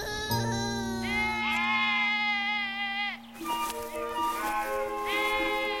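Sheep and goats bleat loudly, several overlapping wavering cries running almost continuously, with a brief dip before more bleats pile in.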